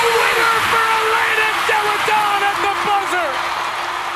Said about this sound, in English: Yep, swish. That's the sound of a game winning basket made by Elena Delle Donne, one of the most electrifying basketball players of her generation and a personal favorite of mine.